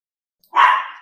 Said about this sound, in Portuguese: Eu queria primeiro pedir desculpa pela cachorrinha que está aqui. Ela é meio complicadinha.